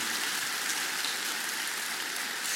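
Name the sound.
audience applause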